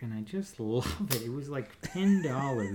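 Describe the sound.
A switchblade knife bought from Wish.com is flicked open and shut over and over, giving a few sharp metallic snaps that cut through someone talking and laughing.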